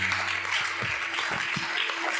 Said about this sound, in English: Let's clap hands for him one more time. Amen.